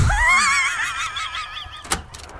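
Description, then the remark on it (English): A wooden log cabin door creaks open in a long, wavering, high-pitched squeal lasting about two seconds, then ends with a single dull knock. No one speaks. “just going to go and open the door of our fictitious log cabin.”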